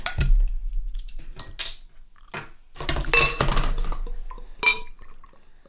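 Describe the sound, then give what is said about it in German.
Glass clinks and clatter, with a beer bottle being handled and opened, followed by a brief pouring or fizzing sound as beer goes into a glass; several sharp bright knocks scattered over a few seconds with no talking. “sollen wir mal, wie der Peter so schön sagt, Luft in die Flasche lassen”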